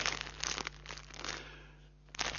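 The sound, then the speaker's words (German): Dry crinkling of a plastic bag filled with soil, with irregular rustling bursts at the start and again near the end and a quieter stretch in between. No one speaks. “Das ist zum Glück in einer Tüte drin, denn es ist Erde.”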